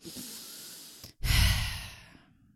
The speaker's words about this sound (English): And we breathe in too shallow during the day, and that's why we're stressed. So, you see, by breathing in one deep breath,